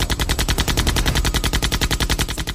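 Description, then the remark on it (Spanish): Two Thompson submachine guns fire a long, unbroken burst, sweeping from left to right until the magazines are emptied: rapid, evenly spaced loud cracks rattling at a steady rhythm for a few seconds, with no voices. “Sin apenas darles tiempo para reaccionar, los falsos policías sacaron dos metralletas Thompson y comenzaron a disparar de izquierda a derecha hasta que vaciaron los cartuchos.”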